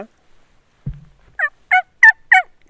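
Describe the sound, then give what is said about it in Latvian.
A low thump, then four evenly spaced, clear yelping calls imitating a turkey hen, each short and fairly loud, with brief pauses between them and no talking. “Tītariene. Tītariene. Tītar mātīte.”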